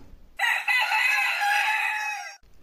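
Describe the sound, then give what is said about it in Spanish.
A rooster crows once, loud, a sustained bright cock-a-doodle-doo lasting about two seconds, with near silence before and after. “Pedro volvió a negar y enseguida cantó un gallo.”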